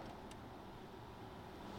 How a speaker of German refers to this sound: Jetzt fahren wir mit Strom. Also noch genau vier Kilometer. Dann ist, hat sich das. Äh, geräuschtechnisch jetzt aber kein Unterschied. Nein, es sind doch die Windgeräusche und eher die anderen Autos.